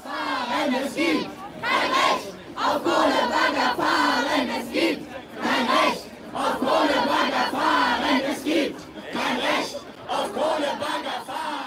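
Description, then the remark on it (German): A large crowd of Fridays for Future climate protesters chants loudly in unison at a demonstration, rhythmic bursts of many voices rising and falling in repeated phrases, continuous throughout. “Das waren Demonstranten von Fridays for Future passend zu unserem aktuellen Buch Klimakämpfe”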